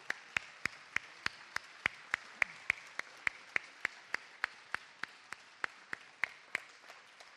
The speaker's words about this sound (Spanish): Y eh, también, por supuesto, si me lo permiten, otro aplauso para la sección musical de la Veracruz, que lo ha hecho fabulosamente bien esta tarde.